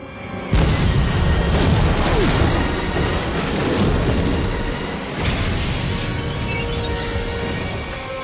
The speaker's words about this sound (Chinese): 哪知道被女主发现一门大炮，突然点火朝着三大爷射去。三大爷就这么被炮决了。